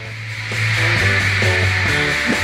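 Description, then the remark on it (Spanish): A dense, nonstop wall of high-pitched screaming from girls in a concert crowd at the Hollywood Bowl stays loud and steady throughout, never stopping at any point, with faint low musical notes underneath. “Todos los temas tienen de fondo las chicas que gritan y no paran en ningún momento.”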